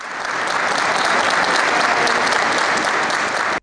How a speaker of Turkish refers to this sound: Onlar da akşam alkışlı desteğe katıldı.